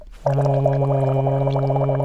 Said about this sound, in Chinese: 对，就是我们拿个杯子哈， 对， 然后大概装一到两公分的水深，好，然后用一支吸管，然后一般的吸管就可以了，然后吹水发出呼的声音，像我这样。